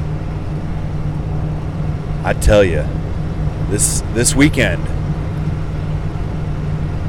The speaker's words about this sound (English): I am heading back to Indy, driving up I 65 with a check engine light on, man.